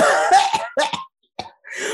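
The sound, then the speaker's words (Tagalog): A person fakes a series of coughs: a rough, drawn-out cough, then a few sharper bursts separated by short pauses, fairly loud, with no talking. “Pag halimbawa sa grocery, marami yung pila. Oo. Umuubo ko na.”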